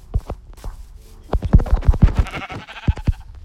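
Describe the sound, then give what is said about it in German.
A sheep bleats in a video game while the player hunts sheep, a run of quick, wavering bleats with a scratchy, clicking texture, fairly loud and rapid, with no talking over them. “Ich krieg genau ein Schaf.”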